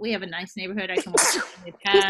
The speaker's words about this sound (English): God bless you. Bless you.